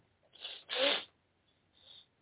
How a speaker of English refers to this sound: And please pardon me my sniffling. I suffer from a sinus condition called when the weather gets cold. And because I have my tonsils and adenoids, my sinuses close up.